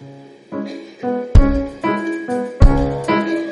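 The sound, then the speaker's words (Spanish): A bass guitar plays a rhythmic pattern of repeated notes, plucked about every half second, with a couple of heavier low accents hitting in time. It is clear, with no talking. “Y la visión tiene algo que, esa es la nota, pero si tú le agregas ritmo a la nota, suena así.”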